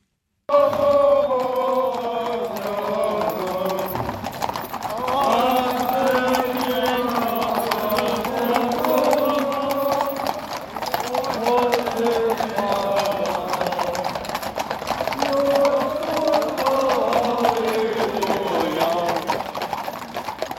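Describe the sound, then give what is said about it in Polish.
Horse hooves of the Ralbitz Easter riders' procession clip-clop steadily on a road while the riders sing a hymn-like chant together, the singing loud and continuous over the hoofbeats. “Konie Ralbičan krzyżorjów są derje bieżeli, a tuisz może się kujży krzyżo mocnie sobą spiewać, kajż tu słyszymy.”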